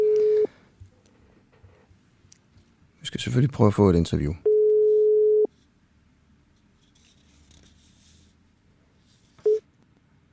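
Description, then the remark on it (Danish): A steady telephone ringback tone while calling the Danmarksdemokraterne party's press phone sounds in separate bursts: one short, one about a second long, then another brief one near the end. A person speaks between the first two tones. “Nu ringer jeg til Danmarksdemokraternes presstelefon, som ikke har taget telefonen i en hel uge, mens vi har ringet sidste uge.”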